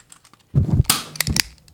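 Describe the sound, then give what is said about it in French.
A ball bounces off a table and strikes a mic stand, a quick cluster of hollow thuds and sharp rattling clicks lasting about a second, fairly loud, with no talking. “Ah, oh, t'as rebondi sur la table avant.”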